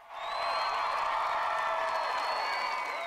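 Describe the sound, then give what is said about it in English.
A large crowd at Dublin Castle in Ireland cheers and shouts in a loud, steady roar lasting a few seconds, with shrill whistles riding over the dense wash of voices. “Ireland has spoken with a clear, strong voice, and this afternoon Dublin Castle was packed with those who wanted to shout about it.”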